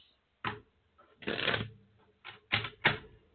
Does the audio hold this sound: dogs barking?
no